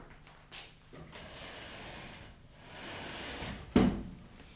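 A wooden chair scrapes and shuffles across a floor, a rough dragging noise ending in a solid knock as it is set down. Close by, with no voices.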